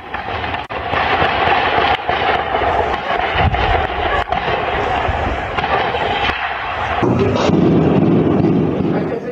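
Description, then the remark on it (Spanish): Several sharp gunshots crack at irregular intervals over a loud, continuous rumbling din, with indistinct voices in the background, during a shootout in a municipality of San Luis Potosí, recorded by students during classes; the noise shifts lower and heavier toward the end. “Algunos estudiantes grabaron el momento en que ocurría la balacera ahí en este municipio Potosino.”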